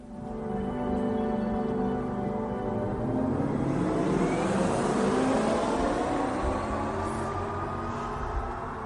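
An electric car's artificial engine sound, a steady synthetic hum with layered tones that slowly rise in pitch as if accelerating, loud and continuous for several seconds with no talking.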